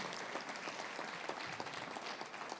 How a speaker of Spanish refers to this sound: Otro aplauso al Señor.